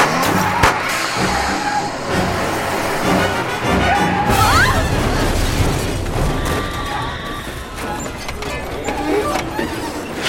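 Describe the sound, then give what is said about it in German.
A loud, chaotic car crash: heavy crunching impacts and rumbling debris over about ten seconds, with a brief screeching whine partway through and muffled voices mixed into the din. “was für ein furchtbarer Unfall.”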